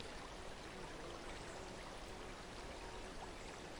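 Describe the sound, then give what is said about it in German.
A babbling spring stream trickles and splashes steadily over smooth stones, forming small eddies in sunlight, a continuous soft wash of moving water at an even, fairly quiet level with no voices. “In unmittelbarer Nähe des plätschernden Quellflusses liegt ein gerundeter Stein, der schon vielen Besuchern vor dir als Sitzgelegenheit gedient hat.”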